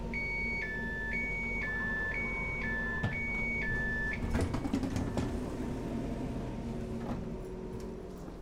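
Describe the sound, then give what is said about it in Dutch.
At Nijmegen-Lent station in the Netherlands, a stopped train's shrill two-tone door warning signal beeps in a rapid alternating pattern for about four seconds, followed by the thud and rumble of the doors closing amid steady background noise. “Maar eerst nog even dat bekende snerpende deursignaal.”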